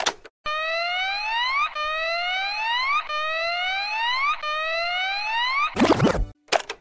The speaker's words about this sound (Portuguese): Vou tremer literalmente, mas eu fico realmente muito tenso ouvindo, uh -huh, ouvindo a, aquela trilhazinha específica que é um solzinho de alarme.